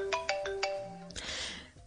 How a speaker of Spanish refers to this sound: por favor, conteste el teléfono, si es tan gentil. A ver, claro que sí. Llama.